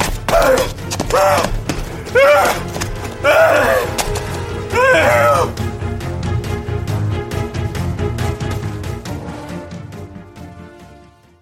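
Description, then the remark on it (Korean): Loud crashes as a man smashes the station master's prized flowerpot and overturns two or so long benches in a train station waiting room: breaking pottery, splintering wood and heavy thuds in quick succession under his strained groaning cries, then the clatter dies away into a fading ring. “필생의 사랑을 잃고 화가 머리끝까지 솟은 똥까니는 대합실로 돌아오면서 역장이 애지중지하는 화분을 박살냈고 이어서 대합실로 돌아와 긴 의자 두어 개를 보기 좋게 뒤집어 버렸고”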